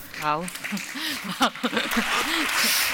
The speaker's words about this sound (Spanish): Y aplausos del respetable.